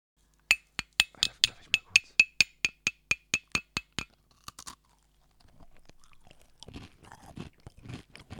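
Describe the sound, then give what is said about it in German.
Crunchy biscuits being chewed: a quick, steady run of sharp, crisp crunches for a few seconds, a short pause, then looser, grinding crunching sounds. No one speaks. “Mm, Kuchen, Mm, Lecker. Kekse, Und oh, Kekse.”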